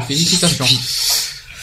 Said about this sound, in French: c'est quoi ce bruit derrière? C'est mon chat qui gratte, désolé.